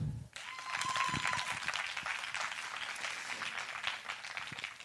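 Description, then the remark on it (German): An audience bursts into steady applause in answer to the question of who among them is a bosom friend, many hands clapping densely and loudly from the start, a brief whistle-like tone near the beginning, the clapping sustained throughout with no talking. “Ja, ich frage einfach mal so in die Runde, wer von euch ist eine Busenfreundin? Einmal klatschen.”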